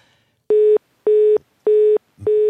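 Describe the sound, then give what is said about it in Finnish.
A telephone line tone sounds in four evenly spaced bursts, each a steady mid-pitched beep of about a quarter second with short gaps between, loud with no talking; the phone in the producer's booth of a Yle Puhe radio show. “Nyt tapahtuu hirveästi asioita tuolla tuottajan kopissa puhelimen kanssa.”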